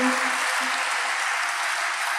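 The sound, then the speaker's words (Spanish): Steady audience applause, a dense, even wash of many hands clapping at a constant loud level throughout, with no voices standing out above it, given for those watching over the internet. “Vamos a darle un aplauso desde acá a los hermanos que nos acompañan.”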